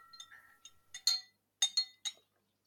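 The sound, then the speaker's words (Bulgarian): Glasses clink together in a first toast: a handful of bright, ringing chimes in quick irregular succession, clear, with faint sustained ringing between strikes and no voices. “Тук мисля, че е време да. за развездяване на обстановката да си кажем първото на здраве.”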